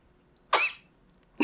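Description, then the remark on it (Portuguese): A sudden, sharp sneeze bursts out, breathy and loud for a fraction of a second, and a second burst begins just as the sound cuts off. “Saúde aí, meu filho.”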